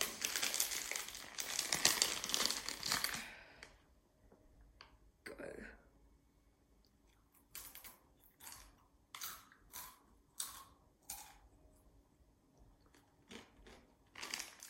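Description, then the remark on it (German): A loud crinkly rustle opens, then a Takis tortilla chip coated in red powder is crunched: a string of sharp, crackly bites in an uneven rhythm, with a brief spoken exclamation in between. “Noch zum Abschluss einmal ein Taki.”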